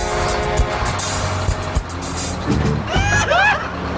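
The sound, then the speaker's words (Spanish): A loud, sustained vehicle horn blares over rumbling traffic noise, then fades as brief voices and shouts rise near the end. “Y ya cuando vayan casándose, se va a escuchar el pitote así.”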